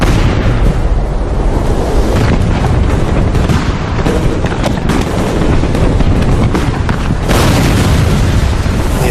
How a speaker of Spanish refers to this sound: Después de media hora de cañonazos, la Mercedes saltó por los aires.